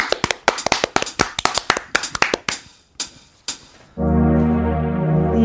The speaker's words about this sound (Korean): 박수 보내드릴게요. 예, 기대됩니다. 라이브로.